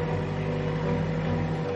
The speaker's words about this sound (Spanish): Lleva una pala incorporada en la parte delantera. Se dirige a la plantación de frutales. Conduce el tractor por los caminos que separan las filas de árboles.